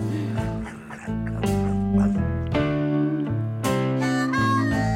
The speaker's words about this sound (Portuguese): Ai, adoro isto. Harmónica, adoro